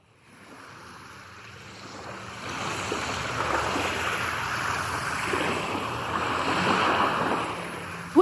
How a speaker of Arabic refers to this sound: تأملت البحر من الحفة العالية شافت الموج عم يضرب بالصخر